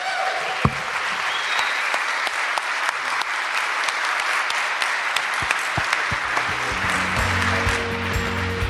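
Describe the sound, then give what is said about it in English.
A crowd applauds steadily, a dense wash of clapping hands that holds at a fairly even loudness throughout, with a low hum or murmur creeping in toward the end. “And so I think we should close with a round of applause for the JC that's here today.”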